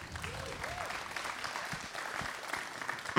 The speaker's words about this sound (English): Yeah, clap for him, man.